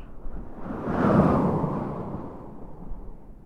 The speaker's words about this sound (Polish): Na północy Polski będzie intensywnie padało i będzie wiał silny wiatr.